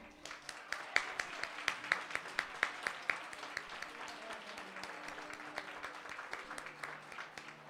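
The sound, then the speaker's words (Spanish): An audience at a gathering of cuadrillas in Yeste applauds the cuadrillas steadily for several seconds, a dense patter of many hands clapping with sharper individual claps standing out, holding at a fairly even level throughout. “Gracias a todos, en nombre de los vecinos de Yeste y visitantes, muchísimas gracias y un gran aplauso para estas cuadrillas.”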